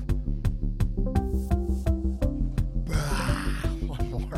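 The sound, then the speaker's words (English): A person alone upstairs in a studio roars in a deep, gravelly growl, sustained for about four seconds and turning harsher and breathier toward the end, with no other sounds. “I'm just alone in a in the upstairs of my studio roaring to myself.”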